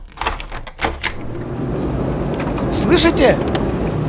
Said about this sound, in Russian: Вы слышите шум города? А ведь я живу в самом центре, не верите?